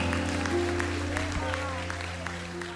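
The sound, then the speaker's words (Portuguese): An audience applauds in a steady, dense patter of clapping that holds at an even loudness throughout, with a sustained organ-like musical tone and faint voices underneath. “Aplaude ele, aplaude.”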